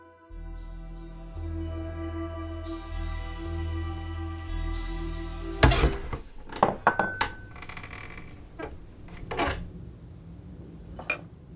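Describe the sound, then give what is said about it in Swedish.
In a kitchen, a steady, layered humming tone holds for several seconds, then gives way to cups and dishes clinking: a run of sharp, bright knocks and rattles of uneven rhythm, with no one speaking. “Plötsligt står min favorittekopp både i diskstället och i skåpet.”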